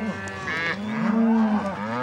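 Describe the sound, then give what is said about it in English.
Ranchers' cattle moo loudly at a counting gate on a grazing allotment in the Bridger-Teton National Forest. A long drawn-out bellow with a low, steady tone lasting nearly two seconds, with a hint of other livestock noise behind it. “They pay the federal government $1.35 a month for every cow and her calf.”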